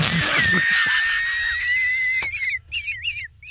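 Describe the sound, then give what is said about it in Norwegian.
A coffee kettle whistles: a shrill, steady high tone rises into a sustained scream, then breaks into a wavering, warbling whistle in short bursts over a low rumble. “Nå kom kaffekjelen på her!”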